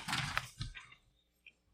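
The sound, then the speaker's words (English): A page of a paper book is turned with a quick papery rustle and flap, followed by a faint soft tick as it settles. No one speaks. “Page turn.”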